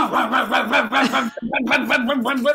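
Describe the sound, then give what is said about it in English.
A voice mimics the rapid clacking of keys on a non-electric mechanical comptometer adding machine, a loud run of quick rhythmic vocal pulses, briefly broken off, then resuming at the same brisk pace. “That sounds like an old typewriter.”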